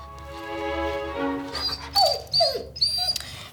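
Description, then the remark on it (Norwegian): A dog named Kasper whimpers and whines in a bedroom in the evening, a long drawn-out whine followed by several short, high-pitched yelps and falling whimpers over a faint background hum, with no talking. “Selma er på rommet sitt sammen med hunden sin.”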